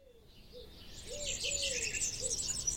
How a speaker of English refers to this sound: So today, my voice is going to be accompanied by some gentle birdsong, and you'll hear some low, gentle rumbling of the countryside.